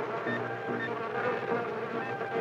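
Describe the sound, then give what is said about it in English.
A dense, steady buzzing of many bees, continuous, with a sustained hum and faint higher tones layered throughout. No voices are heard. “The oscilloscope shows the bee sounds outside our hearing range converts these sounds into light waves and transmits them into the computer, where they're translated and made audible to our ears.”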